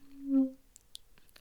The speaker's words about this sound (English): That was not me. That was my chair. Do not think it was me.